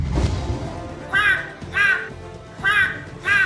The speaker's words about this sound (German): Hier bitte Jingle wieder einspielen.